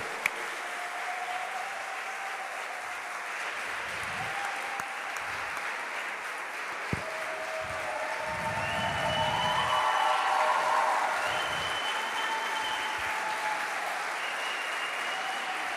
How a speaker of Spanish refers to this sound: Dele un fuerte aplauso, Luchito. Dele, dele la gloria al rey.